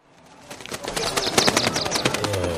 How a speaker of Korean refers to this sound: 상우는 넌지시 세 장문을 열어 그 속에 있던 새를 한 마리 내놓았습니다.